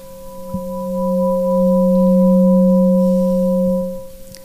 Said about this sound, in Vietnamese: bây giờ các con nghe tiếng chuông và bắt đầu nhắm mắt và thực tập nhé